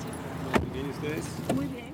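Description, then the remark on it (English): Someone gets into a car for a ride in Argentina: two solid thumps, like a car door shutting, land about a second apart, with faint voices murmuring in the background. “Like on our car ride we get in, start chatting with the driver.”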